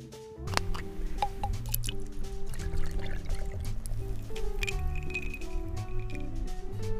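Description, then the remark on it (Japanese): Shirayuri awamori, 30 degrees, pours over ice in a glass, served on the rocks, a steady gurgling stream with a few sharp clinks and drips, fairly loud, with no talking. “おすすめはもちろん、ダイレクトに旨味を感じられるロックですが、割り方はいかがなさいますロックで。かしこまりました。”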